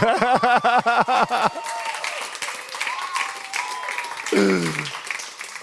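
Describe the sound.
An audience breaks into steady applause, a dense crackle of many hands clapping that carries on for several seconds after a burst of voiced, laughing sounds at the start; a brief voice cuts in near the end.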